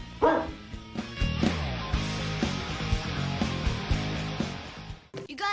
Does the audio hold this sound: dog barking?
yes